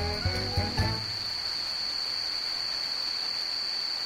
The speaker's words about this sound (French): Pendant les grosses averses qui rafraîchissent un peu l'atmosphère